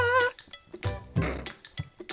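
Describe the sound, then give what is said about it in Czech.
A bright metallic ring opens, followed by a quick, irregular series of sharp clinks and taps, like glass or metal objects struck together, fairly loud with no talking. “Já, ale ty, to cinkání bylo skvělé.”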